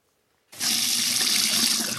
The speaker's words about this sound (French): D'ici la fin du mois, l'eau du robinet coulera plus doucement dans les cuisines et les salles de bain des Barcelonais.